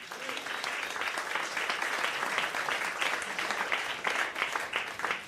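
A crowd at a jazz concert applauds a pianist being introduced, dense overlapping claps at a consistent moderate loudness for several seconds, with faint voices mixed underneath.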